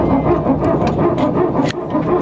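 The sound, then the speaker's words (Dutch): A loud, rough mechanical whine from an Airbus hydraulic pump, pulsing in quick repeated bursts that sound like a dog barking, steady with no talking. It is heard during flight, often shortly before landing. “Dus bij veel vliegtuigen is het een elektrische pomp, bij Airbus dus niet.”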